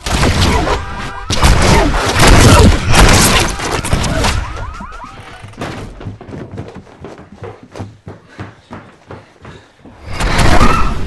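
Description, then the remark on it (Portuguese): A lightning strike hits right behind a house with a loud, sharp crash that breaks into a crackling, rumbling roll for several seconds, then fades before another heavy burst of thunder surges in at the end. “Caiu bem atrás da nossa casa. É, eu sei. E não deve cair de novo, porque os raios não caem duas vezes no mesmo lugar.”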